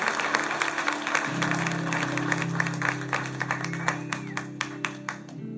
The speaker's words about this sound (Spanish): Vamos a darle un aplauso a todos.